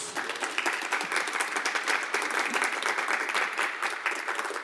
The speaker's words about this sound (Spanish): Dale un aplauso a Jesús.